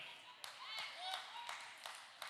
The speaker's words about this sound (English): The person from El Cajon is the only one clapping?